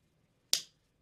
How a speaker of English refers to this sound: Turn around for me. Very nice. Slap your butt.